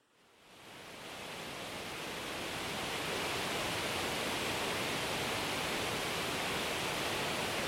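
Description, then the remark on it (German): A steady, dense roar of rushing water at a dam wall swells up within the first second and then holds loud and constant, with no voices. “Können wir mal die Staumauer haben mit dem Rauschen?”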